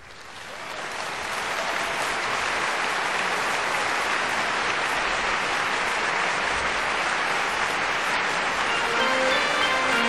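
Sustained audience applause, a dense crackle of many hands clapping that swells in over the first second or two and then holds steady and loud without any talking.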